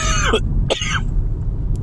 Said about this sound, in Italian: che merda di tosse mi sta tornando secondo me un po' di reflusso perché forse ho esagerato un po' con l'alcol non lo so buh.